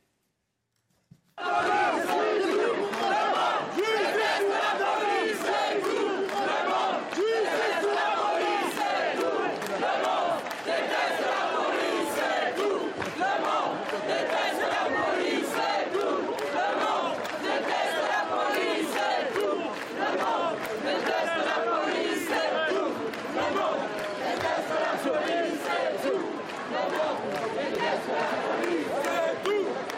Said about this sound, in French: La foule va scander euh, Tout le monde déteste la police et il ne bronche pas. Regardez.